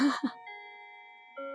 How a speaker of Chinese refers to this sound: 对啊，可是不是有人一听就觉得，哎，就下课铃声呢？嗯，对不对？怎么听都小朋友都说 不是上课铃声，是下 课铃声啊。我们来听一下好了。